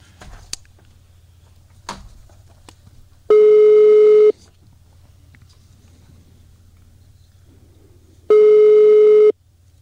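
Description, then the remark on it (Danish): Two long, steady electronic telephone ringback tones while calling HK's press telephone, each about a second long and separated by a pause of a few seconds, heard clearly over a quiet line with faint clicks and handling noises. “Nå, ja, til HK's presstelefon.”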